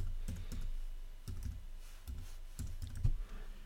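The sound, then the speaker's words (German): Rapid keystrokes clatter on a computer keyboard in short irregular bursts, fairly steady, with no one speaking over them, as someone enters an address and a phone number while setting up a Shopify online shop. “und genau, hier musst du noch deine Adresse eingeben, klickst dann auf zu meinem Shop und na, äh, eine Telefonnummer wohl auch noch.”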